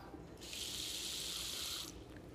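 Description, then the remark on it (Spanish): Water pours steadily into a pot of lentils for about a second and a half, an even hissing stream that starts and stops cleanly, added at least to cover the lentils, with no talking over it. “Entonces le añadimos el agua, por lo menos hasta cubrir las lentejas.”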